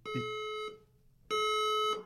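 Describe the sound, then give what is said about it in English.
A building fire alarm sounds during a fire drill: two long, harsh, buzzing tones, each lasting over half a second and separated by a brief pause, with no talking in between. “Oh, that's a fire alarm in the building, I think.”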